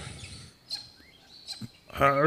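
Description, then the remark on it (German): A few short, high chirps from a small bird, faint and scattered over a quiet background, including one rising whistle, before a person starts speaking at the very end. “Ich gucke mir den Vogel mal an ähm, so langsam.”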